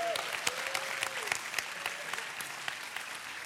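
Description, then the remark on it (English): An audience applauds steadily, a dense patter of many hands clapping at moderate loudness, with a faint voice or tone briefly sustained beneath the clapping. “Come on, give her a hand clap.”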